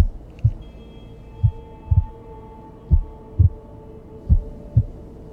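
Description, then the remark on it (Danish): A man's own pounding heartbeat thumps in low, heavy double beats, roughly one per second, over a steady droning hum like a rushing in the ears, with no voices. “Det er som om, at tiden står stille, og det eneste han hører er hans egen hjertebanken og en rumme for ørerne.”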